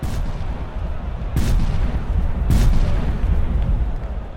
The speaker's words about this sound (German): Auch Knallkörper und bengalisches Feuer werden gezündet.